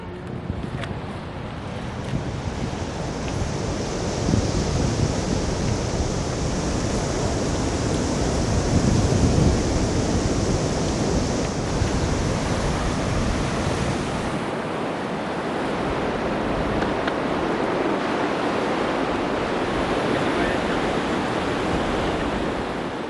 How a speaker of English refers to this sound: It is a wild piece of coastline, but in the wildness there's incredible beauty. The sea is ferocious and powerful, and any someone that really lives here and understands what we have really comes to love our Southern Ocean and its inhabitants.